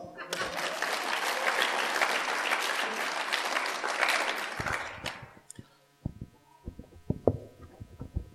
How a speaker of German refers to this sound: genau, Applaus.